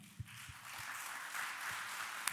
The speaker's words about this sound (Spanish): Queremos saludarlos, darles la bienvenida y decirles con este gran aplauso que estamos muy contentos con que nos acompañe.